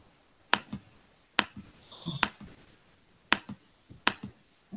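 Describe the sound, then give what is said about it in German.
Sharp, forceful taps ring out amid silence, several crisp clicks arriving in loose pairs with pauses between them, fairly loud, with no one talking. “Ich höre ein heftiges Tippen in der Stille.”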